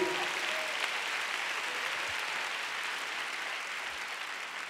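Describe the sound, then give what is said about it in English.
A church audience breaks into sustained, steady applause for Jesus, a dense wash of clapping at an even level for several seconds without a voice rising above it. “let's give Jesus a big hand”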